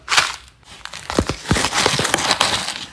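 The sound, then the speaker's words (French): Dry cocoa shells of a Théo Broma cocoa infusion crunch and crackle underfoot in a steady run of brittle snaps, with sharp crisp bursts and a few deeper thuds, fairly loud and continuous throughout. “c'est les écorces de cacao que vous entendez.”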